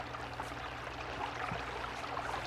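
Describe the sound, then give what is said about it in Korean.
A babbling stream flows steadily and continuously at night, a dense, bubbly rush of water that stays at an even, moderate loudness throughout with no voices or other sounds. “낮엔 개울 소리가 안 들리는데 밤에는 이렇게 철철철철철철 이렇게 크게 들려요.”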